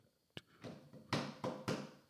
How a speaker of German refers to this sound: Ich mach, ich, Mann, ich klopfe hier auf den Tisch. Ich glaube, das kommt nicht, hört sich nicht an wie Applaus. Ich kann nicht mit einem, mit einer Hand klatschen.